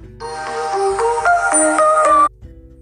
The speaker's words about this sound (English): excuse that phone call came through